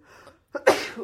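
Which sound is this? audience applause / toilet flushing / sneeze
sneeze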